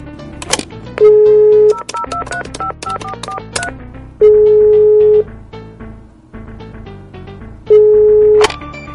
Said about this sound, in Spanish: Voy a volver a marcar y tú me sigues la corriente.